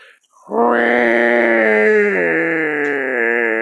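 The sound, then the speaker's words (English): A person vocally imitates a cat's yowl, one long, loud, drawn-out wail with a strained, nasal tone that shifts slightly midway and holds for about three seconds. “and I looked behind him, and it was a white cat walking sideways.”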